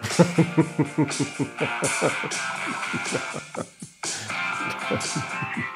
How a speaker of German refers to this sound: So, das ist mal ein Klingelton für den Zirkusdirektor.